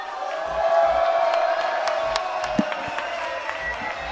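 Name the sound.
crowd cheering and applauding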